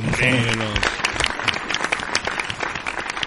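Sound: audience applause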